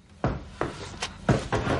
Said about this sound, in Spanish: La puerta del cuarto se abre.